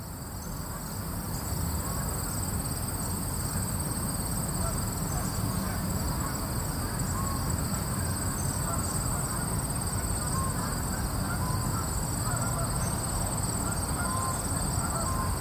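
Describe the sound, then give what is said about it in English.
A steady chorus of crickets trills without pause across a meadow at Hudson Crossing Park on a late summer evening, a dense high shimmer layered over a soft, low outdoor rumble, with no talking. “here is the sound of a late summer evening in the meadow at Hudson Crossing Park.”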